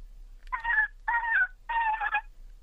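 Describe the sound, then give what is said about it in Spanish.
A voice imitates a sad dolphin with three short, whiny, high-pitched cries in a row, closer to a whimpering dog than a dolphin, with brief pauses between them and no talking. “¿Me puede hacer por favor delfín triste?”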